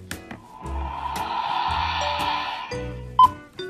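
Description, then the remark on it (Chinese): A voice imitates a toy laser gun powering on with a sustained, buzzing, bleat-like hum that holds steady for about two seconds, ending with a short sharp chirp. “然后呢，它开机的声音是”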